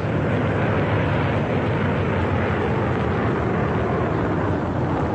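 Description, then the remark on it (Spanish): A motor launch's engine roars at a steady, loud pitch on the sea, a continuous rumbling drone with a wash of noisy hiss that never lets up, with no voices over it. “La lancha de motor se detuvo y el capitán Gary trepó a cubierta de la frágil embarcación.”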